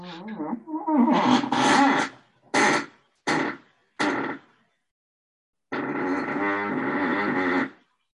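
A string of loud fart sound effects: a long rippling blast, three short sharp toots in quick succession, then a final drawn-out, wavering one after a brief pause.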